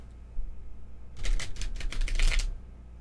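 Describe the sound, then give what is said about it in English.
A deck of tarot cards, bigger than playing cards, is shuffled once by hand: a quick, crisp burst of rapid flutters lasting about a second, with no one speaking. “But I am going to do one one shuffle once again, just so we don't get a bunch of cards from the same arcana again.”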